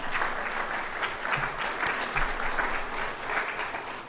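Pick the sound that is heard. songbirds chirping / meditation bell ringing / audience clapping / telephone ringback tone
audience clapping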